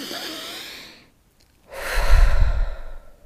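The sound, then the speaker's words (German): A slow, deep conscious breath in through the nose, a brief pause, then a long, full exhale that swells louder with a rushing, airy sound, without speech. “wenn ich regelmäßig, vielleicht drei, viermal am Tag, wirklich nur dreimal Atmen einbaue, bewusstes Atmen, richtig”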